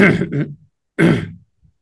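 Two raspy throat clearings at a microphone, the first in two quick pulses and the second a single firm rasp after a short pause, with no speech.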